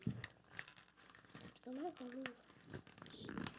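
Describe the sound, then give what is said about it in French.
Scratchy crinkling of a gift's wrapper in quick irregular bursts as a child handles it and pulls it open, with a short vocal sound from the child partway through. “Est-ce que tu es capable de l'ouvrir tout seul?”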